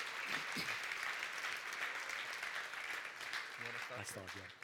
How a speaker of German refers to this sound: Danke für den Applaus.